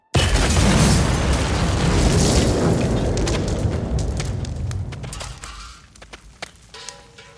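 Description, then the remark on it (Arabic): A loud explosion of an explosive device planted in a father's car erupts in a deep, sustained roar that slowly fades over several seconds, with scattered crackles and pops of debris trailing off at the end. No one speaks. “في لحظة غفلة في سيارة الأب تنفجر عبوة ناسفة”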